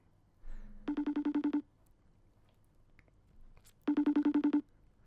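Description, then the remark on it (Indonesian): A phone ringback tone from a call to a friend sounds in two bursts, each a rapid pulsing warble lasting under a second, separated by a pause of a few seconds, clear and moderately loud with no talking. “Kok gak diangkat-angkat ya?”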